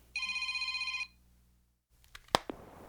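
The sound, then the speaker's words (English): A telephone rings with one rapid, trilling electronic burst lasting about a second, followed by a pause and then the sharp clatter of the handset being picked up. “Uh, can we just do this over the phone?”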